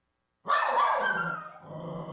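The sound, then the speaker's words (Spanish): A small, schnauzer-like dog barks and growls at an empty armchair after a brief silence, a loud, raspy outburst that eases into a lower, rumbling growl. No one speaks. “Dos perros. el otro, está como llorando. Mira. Aúlla.”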